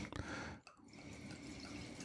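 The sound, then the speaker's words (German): A 2021 wine pours into a glass in a steady, gurgling stream during a wine tasting, with a brief break early on before the liquid flow resumes and continues to the end. “Äh, ähm, gieß mal ein.”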